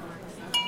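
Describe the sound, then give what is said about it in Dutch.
Glasses clink together once in a toast, a bright ring that lingers briefly after the strike, with a low murmur of voices beneath it just before. “Proost!”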